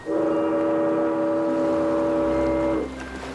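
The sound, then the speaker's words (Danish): A ferry departs Aarhus across Aarhus Bay for the island of Samsø, Denmark: a loud, steady ship's horn blasts for nearly three seconds over a low rumbling engine, then cuts off, leaving the deep engine drone running on its own. “Færgen sejler nu.”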